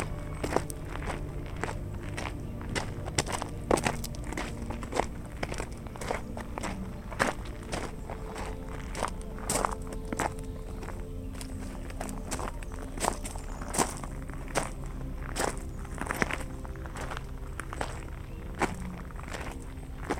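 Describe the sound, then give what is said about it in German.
Steady footsteps of someone hiking crunch along a forest path in the shade of tall trees, a regular walking rhythm of soft, crackly steps over leaves and twigs, with a low continuous background hum beneath them. “Die hoch aufragenden Bäume formen ein dichtes Blätterdach und du kannst die Kühle des Waldes auf deiner Haut spüren, während du im Schatten weiter wanderst.”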